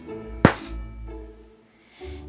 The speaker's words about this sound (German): und knallte wütend die Tür zu.